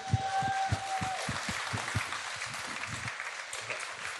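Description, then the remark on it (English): A crowd breaks into applause, a dense wash of many hands clapping at once, with a few sharper individual claps standing out early on before it settles into steady, even clatter. The audience is applauding a guest for their work on the show Top Boy. “Let's give.”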